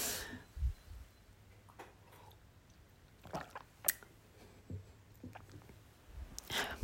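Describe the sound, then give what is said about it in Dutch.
Quiet sipping of tea: a few soft slurps and wet mouth sounds with small clicks, scattered irregularly over low background hum, with no talking. “En dan even een slokje thee.”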